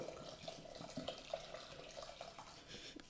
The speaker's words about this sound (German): Du schüttest noch den Gin rein.